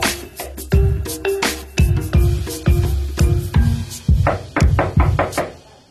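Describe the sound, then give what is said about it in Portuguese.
Loud, insistent knocking on a door, a rapid, uneven series of heavy thuds and sharper raps coming in bursts for several seconds, with no one speaking. “Abre a porta, Eurico! Eurico, abre a porta! Pronto, Daniel. Para de fazer tanto barulho e entra.”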